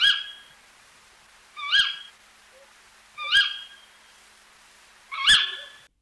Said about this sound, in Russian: Это тоже филин? Да, это тоже филин, но дело все в том, что вот такого рода звуки могут издавать и другие совы, не обязательно вот большой крупный филин.